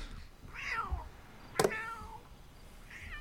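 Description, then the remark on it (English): A person outside a house mimics a cat's meow, producing a few drawn-out, wavering mewing calls in close succession, with a sharp click partway through. No talking. “They practiced that cat sound.”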